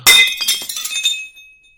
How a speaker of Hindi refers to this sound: अगर आप की हाँ है तो प्लीज एक बर्तन गिराइए आपकी ना है तो दो बर्तन